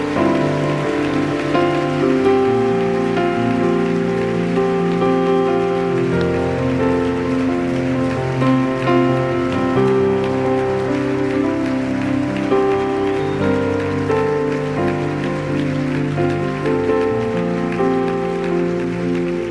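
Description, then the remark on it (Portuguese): Loud, sustained applause from a large crowd, given to Jesus: a dense steady patter of clapping lasting the whole stretch, with held keyboard-like chords ringing underneath. “Pode dar uma salva de palmas a Jesus bem alto.”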